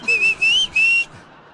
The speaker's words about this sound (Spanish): mamá, el señor me dijo que te chiflara. Ya le chiflé a mi mamá.